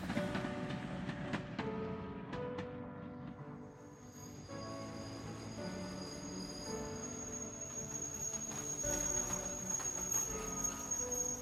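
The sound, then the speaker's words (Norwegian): A train arrives at the station in Hamar, Norway, rolling in with a few rhythmic clacks over the rails, then long, high brake squeals ring out over a steady rumble as it slows to a stop. “Toget er framme på Hamar.”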